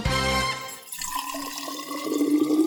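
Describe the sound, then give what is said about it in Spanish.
After a brief tonal sound, water is poured into a mate gourd holding fresh yerba in a steady gurgling stream whose pitch climbs gradually as the vessel fills. No voices. “Yerba renovada y agua lista para volver a tomar unos ricos mates”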